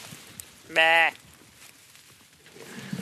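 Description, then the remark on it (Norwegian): A single sheep bleats once, loud, a short quavering cry lasting about a third of a second, with quiet outdoor ambience before and after. It is one of two sheep walking right outside an upper secondary school in the Faroe Islands. “Der går det to sauer.”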